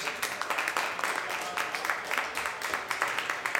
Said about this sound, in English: Ladies and gentlemen, thank you so much for being a part of this forum. Thanks to our panelists. Give them a round of applause, please.